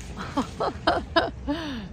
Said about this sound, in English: the ducks here.